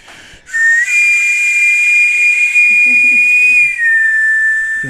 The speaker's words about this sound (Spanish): Hasta el sonido mexicano de los camotes.